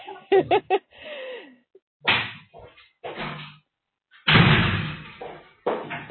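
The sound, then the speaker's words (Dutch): A voice imitates a cat with a few short meows and a drawn-out falling mew, followed by several loud, sharp knocks or bangs on a door, spaced apart with brief pauses between them. “Sorry, maar er zijn grenzen aan hoeveelheid gemiauw die wij in één uitzending willen.”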